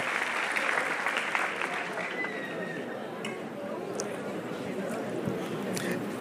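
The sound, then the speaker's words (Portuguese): An audience bursts into sustained applause to the Lord for the life of a woman who ran to the altar, a dense, steady wash of clapping for several seconds, with faint voices mixed in beneath the noise. “Aplauda o Senhor pela vida dela aí.”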